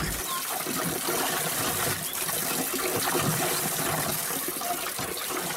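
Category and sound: tool, water gushing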